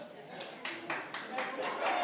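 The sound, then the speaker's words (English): A single audience member at the back of the room claps steadily in response to an answer, about four claps a second, the sharp slaps sounding over a low murmur of room noise and voices. “So someone's clapping and then raising her hands as if in worship with that answer in the back of the room.”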